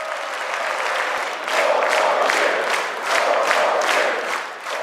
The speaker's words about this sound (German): Sie rufen four more years, also vier weitere Jahre für Trump als Präsidenten.